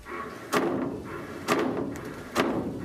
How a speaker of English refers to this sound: So if you're hearing banging in your pipes that sounds like this,